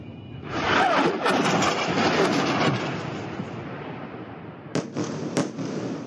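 Bomb blasts from Israeli army airstrikes on Gaza: a sustained, rumbling roar broken by several sharp, crackling bursts, loudest early on, with a couple more sudden cracks near the end. No one speaks.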